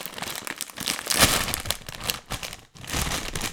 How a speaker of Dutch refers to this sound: Dus, goed, dan gaan we de zak openmaken.